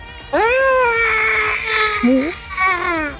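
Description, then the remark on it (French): A person vocally mimics a creature's high, strained squeal, one long wailing cry followed by two shorter whiny yelps, loud with no other sounds around it. “Et je pense que t'en en entends un piaillement de, dépit alors que tu tues l'un de ses semblables.”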